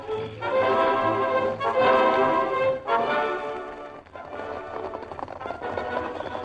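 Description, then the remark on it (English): The horses Silver and Scout clip-clop in a quick, steady rhythm as riders head to the trail, mixed with loud, full music that swells and then eases off toward the end. No one speaks. “Uh, me get horse.”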